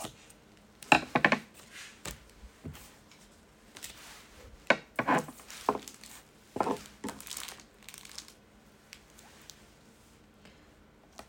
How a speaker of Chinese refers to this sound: 剪刀这样子剪剪剪声音，真的也是蛮蛮好听的，我觉得。